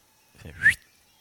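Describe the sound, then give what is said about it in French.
A single short whistle by a man in an orange puffer jacket, a quick high note that slides slightly upward and ends abruptly, with a soft rustling burst around it and quiet before and after. “Et il y en a un, euh, celui avec sa doudoune orange, il, siffle. Il fait un, sifflement. Juste un sifflement”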